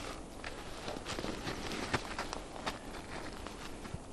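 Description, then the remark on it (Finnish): Footsteps crunch steadily over rough outdoor ground as someone steps forward, a series of irregular treads with no talking, set against a broad background hiss. “No niin, nyt askel eteenpäin ja katsotaan mitä tapahtuu.”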